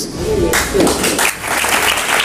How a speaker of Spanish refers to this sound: Aplaudían, aplaudían también esa frase de la necesidad de virtud.